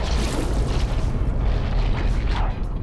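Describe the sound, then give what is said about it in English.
A giant squid roar: a loud, deep, rumbling drone with a slightly mechanical edge, holding steady and unbroken for about three seconds, with no voices. “These roars, they almost sound mechanical.”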